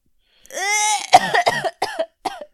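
A drawn-out, wheezy intake of breath is followed by a string of four harsh coughs in quick succession, fairly loud, with no talking.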